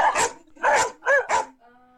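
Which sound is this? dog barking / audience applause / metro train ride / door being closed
dog barking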